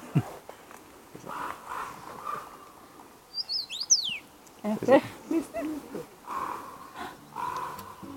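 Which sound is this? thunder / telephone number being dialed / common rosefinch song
common rosefinch song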